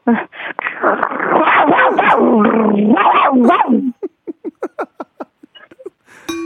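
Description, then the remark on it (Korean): A person imitates an angry dog, starting with a loud, snarling growl for about four seconds, then breaking into a quick run of roughly ten short, sharp barks that trail off. “어, 그렇게 개 화났을 때 짖는 소리도 해도 될까요?”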